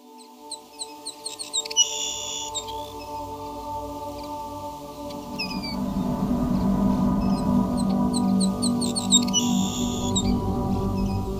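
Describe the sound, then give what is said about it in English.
A Savannah sparrow, a small brown sparrow of open grasslands, sings a high, thin song of quick buzzy chips and trills, repeated twice, over a steady low hum of background noise that swells midway. “this small brown sparrow of open grasslands has a high, thin singing voice that can sound like zit”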